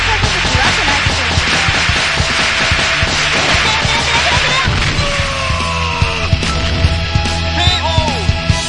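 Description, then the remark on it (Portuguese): A dense, noisy burst of sharp cracks and snaps from a big whip, with several loud transients toward the end and a steady low hum underneath; no speech is heard. “Agora vem um chicotão de 25 reais do mãos, ó.”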